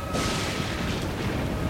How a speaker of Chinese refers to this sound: 狂暴的雷轰击中了某棵高耸的大树，树头还着火，像只巨大的火把。